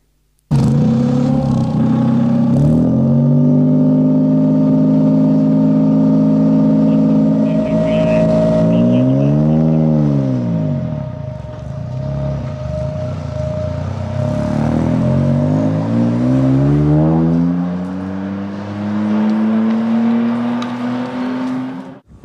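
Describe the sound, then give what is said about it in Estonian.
A Japanese endurance racing car engine runs loud, its steady rumble rising and falling through several revs, with a sharp climb and drop midway and another slow build toward the end. “on see, et tegu on Jaapani kestvussõidu võistlusautoga Äh, jah, ja, ja see kestvussõit saab toimuma selle kuu lõpus ehk siis mai lõpus ja üks niisugune auto on olemas, nii, panen nüüd selle heli peale, et võite siis mõelda, mis, millega tegu on.”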